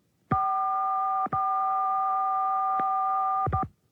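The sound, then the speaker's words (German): A telephone keypad (DTMF) tone for the sixth digit of a phone number sounds alone: a steady, clear two-pitched beep held for about a second, a brief break, then the same tone again for a couple of seconds before it cuts off. “Das gehörte Signal ist die sechste Ziffer unserer gesuchten Telefonnummer.”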